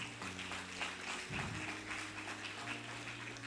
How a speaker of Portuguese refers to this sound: Aplaude Ele por isso.